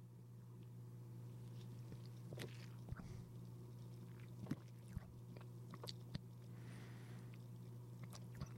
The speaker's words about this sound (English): The cap is off. The bubbles are bubbling. Up to my nose it goes for a first smell. Thankfully, more blackberry forward than champagne. And with that, sip one.